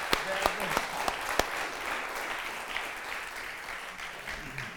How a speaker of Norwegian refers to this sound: Ja, vi kan klappe for Alexi. Veldig bra. Tusen takk.